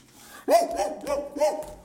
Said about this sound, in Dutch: Hé, hey, wat is dat allemaal? Oh, dat is wat jullie eh, natuur noemen. Dieren. Dieren? Wat voor dieren? Bosdieren. Nou, eh, dat is geen bosdier, dat is een hond.